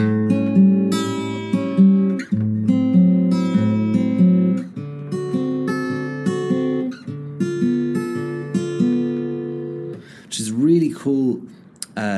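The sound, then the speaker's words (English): A fingerstyle guitar lick, a transitional lick going from A to D7 or A to E7 for 12-bar turnarounds, with plucked bass and treble notes ringing together in a steady, bluesy phrase that ends with a few bent, wavering notes. “transitional kind of lick, going from maybe an A to a D7 or an A to an E7 when you're playing your 12, uh, 12 bar turnarounds.”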